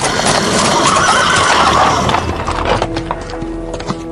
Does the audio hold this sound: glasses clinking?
no